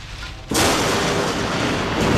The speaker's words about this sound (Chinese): 雷声轰隆隆撕裂黑夜